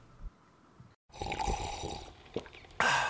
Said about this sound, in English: That's not just the sound of that first sip of Morning Joe.